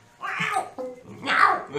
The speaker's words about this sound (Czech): To je kočka.